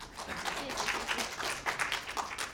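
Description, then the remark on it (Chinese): An audience applauds to welcome a performer back, many hands clapping in a dense, continuous patter at a moderate level that holds evenly for a couple of seconds without any voices on top. “咱再鼓鼓掌吧。”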